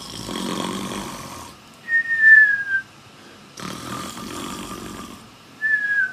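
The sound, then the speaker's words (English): A voice imitates snoring twice: a rough, raspy inhale followed by a thin whistling exhale, repeated in a slow two-part rhythm, moderately loud with no other talk. “If you don't know what snoring means, it's kind of go, it's when you go”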